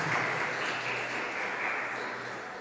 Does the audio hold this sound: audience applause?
yes